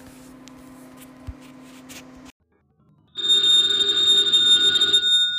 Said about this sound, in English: Ladies and gentlemen, the ringing of that phone bell means adventure.